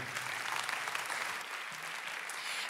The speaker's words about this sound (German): Und ich finde, das ist ein Moment, wo wir dem Heiligen Geist einen Applaus geben können für alles, was er tut in meinem Leben.